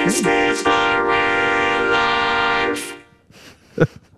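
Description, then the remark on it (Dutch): Singing run through a vocoder, a rich robotic chord-like voice holding loud sustained notes for about three seconds, then dropping away to a few quieter, breathy vocal fragments. “En dat is het fantastisch grote voordeel aan een vocoder. Je kunt er ook mensen mee laten zingen die eigenlijk niet zo heel erg goed kunnen zingen.”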